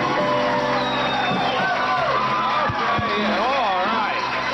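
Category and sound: crowd, pre-recorded applause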